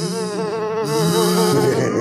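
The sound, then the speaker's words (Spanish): A person imitates a housefly with a loud, continuous buzzing hum that wavers slightly in pitch. It lasts about two seconds, with no other talking. “Una mosca, güey.”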